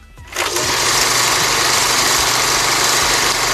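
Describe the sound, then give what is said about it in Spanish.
An old cinema film projector whirs steadily, a loud, continuous mechanical hum and rattle that starts abruptly after a brief quiet moment and runs on without pause. No one speaks. “Es así como un proyector de, de cine.”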